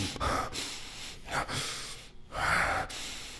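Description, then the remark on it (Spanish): A voice imitates heavy, labored breathing: loud, breathy gasps and exhales in quick succession, with no words spoken. “Llega el, muchacho y le echa la moneda y nomás de acercarse empieza con la respiración, ¿no? Así.”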